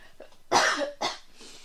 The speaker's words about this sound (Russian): Как так э, подкаст у нас без обработки. Мне нравится формат живых э, подкастов, поэтому я покашляла, ничего страшного.